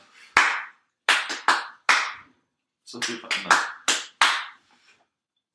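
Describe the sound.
Sharp hand claps beat out a pop song's rhythm as a clue in a song-guessing game, in uneven groups, single claps and quick doubles with short pauses between, while a voice briefly speaks partway through.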